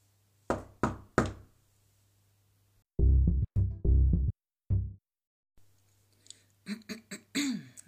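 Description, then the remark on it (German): A few sharp knocks on a door, then another quick series of firmer knocks, followed by a soft throat clearing and a short breathy sound. No one speaks. “Und ich bin keine Sekunde zu früh, denn genau in diesem Moment wo ich fertig angezogen bin und einen letzten Blick in den Spiegel werfe, klopft es an der Tür.”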